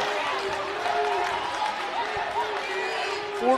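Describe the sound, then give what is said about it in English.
A home crowd cheers and roars in the Central High School gym during a basketball game after a three-pointer, a steady wash of voices filling the gym for several seconds with a few shouts rising above the din. “… answers and yells back to the Central crowd, and this place is alive here at Central High School”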